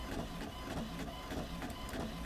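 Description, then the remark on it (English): A printer runs steadily, its mechanism whirring with a quick, repeating rhythmic chatter of clicks and pulses as a page feeds through, with no one speaking. “I'm gonna print it out and read it while I'm on the bus.”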